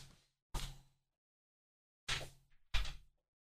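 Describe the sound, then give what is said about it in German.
A door is closed: a few sharp, hollow thuds and knocks spaced out over a few seconds, with a brief rattle between them and quiet stillness around them. “Ich mache mal ganz kurz die Tür zu.”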